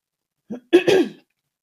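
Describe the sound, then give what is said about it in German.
A person clears their throat: a short low grunt followed by a louder, rougher double rasp, with silence on either side and no talking. “Warte mal, ich muss mich mal kurz räuspern.”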